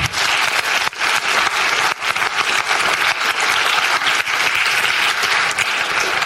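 A crowd claps steadily and loudly for several seconds, a dense, continuous wash of applause with no voices standing out.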